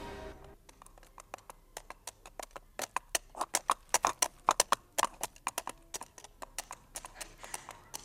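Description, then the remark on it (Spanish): Horses' hooves clip-clop in a brisk, irregular rhythm, many sharp hoof strikes overlapping as three men on horseback ride out through a large gate, growing louder toward the middle and then easing off. “Buscaba el número 26 cuando sintió pisadas de caballos.”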